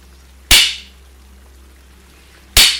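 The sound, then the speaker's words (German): Two sharp taps of a master's stick, about two seconds apart, pacing slow breathing in and out during a breathing exercise, each a crisp crack with a short ringing tail, heard alone over a faint low hum in a slow, steady rhythm. “Von jetzt an atmen Sie mit dem Geräusch meines Meisterstocks ein und wieder aus.”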